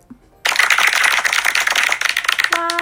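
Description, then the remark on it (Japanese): A burst of many hands clapping, dense and crackling, starts abruptly and holds steady for about two seconds before trailing off, followed by a brief steady tonal chime. “ついにそのえー、なんていうのコンテンツっていうんですかが完成しましてそしてついに今日募集スタートしました拍手”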